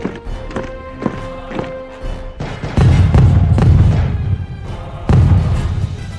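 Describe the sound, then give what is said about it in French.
Steady, evenly spaced footsteps of soldiers with loaded rifles advancing on resisters thud in a marching rhythm, then give way to heavy, loud low rumbling bursts that swell twice. “Leurs fusils sont armés et le bruit de leurs pas qui s'approchent inquiète autant que motive les résistants à en découdre.”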